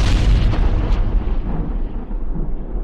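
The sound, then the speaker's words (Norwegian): A huge, deep explosion sound effect representing the Big Bang roars out at full loudness, then rumbles on in a long, low, continuous boom that slowly loses its brightness over about three seconds, with no voices. “An event called the Big Bang.”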